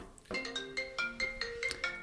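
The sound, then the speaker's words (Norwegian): A mobile phone ringtone plays a quick, bright melodic pattern of repeated electronic notes in a steady rhythm, clear, with no talking over it. “Ja, der får du en det, telefon.”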